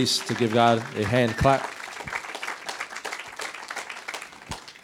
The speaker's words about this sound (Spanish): Ese es un buen lugar para aplaudirle aunque no lo haya entendido.